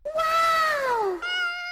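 A cat gives a long, loud meow that slides downward in pitch, then right away a shorter, steadier mew follows, both clear with no voices.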